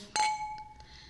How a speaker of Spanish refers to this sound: yo creo que esto amerita iniciarlo con un buen brindis. Así que Mons, levanta tu copita